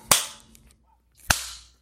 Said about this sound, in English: Uh, clap.